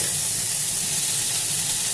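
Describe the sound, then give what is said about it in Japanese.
Chicken sizzles steadily in a frying pan, a dense, continuous hiss with crackling texture that holds even throughout, with no voices over it. “焼き加減のコツとしてはですねあの皮から焼くことですね鶏肉の美味しい焼き方って皮はやっぱり分厚くて熱が通りにくいので皮を焼いてまず油を落とし”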